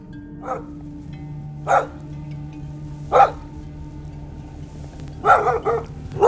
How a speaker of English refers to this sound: We flew out here this week because we're just kind of crossing off some places on the search list, and we have a, a canine unit with us today